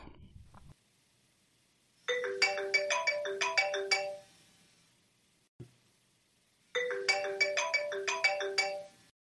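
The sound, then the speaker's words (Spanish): An outgoing phone call ringing tone plays in two separate bursts of quick, bright melodic beeps, each lasting about two seconds with a pause between, clear, with no one talking. “A ver, teléfono, por aquí estamos.”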